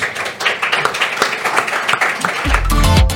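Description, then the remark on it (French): A crowd claps steadily for a few seconds, a dense patter of many hands at moderate volume, before a low musical jingle swells in underneath near the end. “Merci et applaudissements pour Audrey Assante.”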